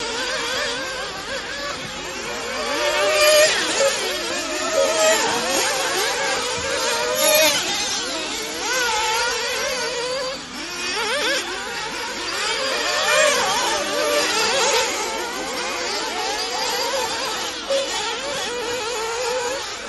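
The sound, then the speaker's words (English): The small electric motor of an RC car whines and buzzes steadily for about twenty seconds as it races one lap of a track, its pitch rising and falling as it speeds up and slows through turns, fairly loud with no talking. “Um, it's probably gonna be a little loud. We're gonna do one lap.”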